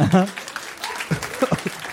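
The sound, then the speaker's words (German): An audience claps in a brief, scattered round of applause for a couple, a steady crackle of hands running under people talking and laughing over it. “Kleiner Applaus für das Paar.”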